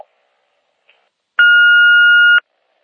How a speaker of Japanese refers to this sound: ただいま、ポッドキャストトーク中で電話に出ることができません。ご用のある方は、ピーッとなりましたら、お名前とご用件を勝手にどうぞ。